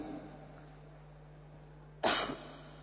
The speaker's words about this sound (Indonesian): eta batuk ngaranna kitu